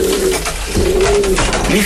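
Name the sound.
pigeons cooing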